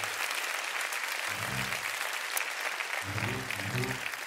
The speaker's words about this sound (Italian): Fratelli, facciamo un applauso al povero Lollo Brigida.